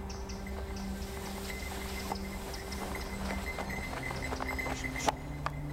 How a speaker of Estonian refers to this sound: hobune rassis aegamisi läbi paksu lumevaiba habemikul aga, kes ohje hoidis ja suksut edasi nõõtes, oli aega küll.